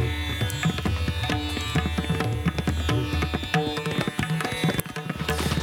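Busy Indian tabla and pakhavaj percussion, strokes in rapid, rolling rhythms over a sustained low drone, loud throughout with no voices; Indian music recorded on 21 December at the Lane Lia Studios.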